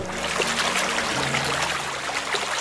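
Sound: water trickling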